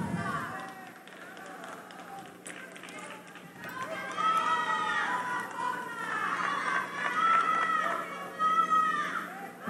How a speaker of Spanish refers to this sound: Oigan los gritos.